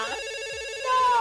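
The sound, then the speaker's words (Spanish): A telephone rings with a bright, steady electronic tone rich in harmonics, growing louder and more piercing toward the end, signaling an incoming call. “tenemos llamada, tenemos llamada.”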